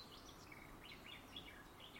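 Faint birdsong, a run of short high chirps and twittering phrases over a steady outdoor hiss, with no voices.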